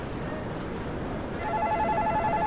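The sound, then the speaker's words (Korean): A KakaoTalk message notification chime sounds on a phone partway through, a short bright electronic tone ringing over steady background hum and faint murmur, in a library in the morning, notifying that a borrowed book's return is overdue. “도서관에서 아침부터 카톡카톡 한다.”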